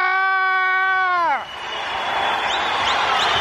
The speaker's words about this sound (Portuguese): Grita aí, nação púrpura!